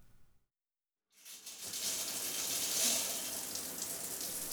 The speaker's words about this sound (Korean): 따뜻한 증기가 욕실 안에 가득하다. 새벽부터 비바람과 추위에 찌든 몸을 샤워기에서 나온 뜨거운 물로 씻어낸다.